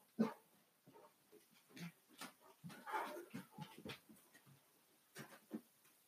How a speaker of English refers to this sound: My dog just got real excited. He's got to go bark at somebody. Um, he is stoked.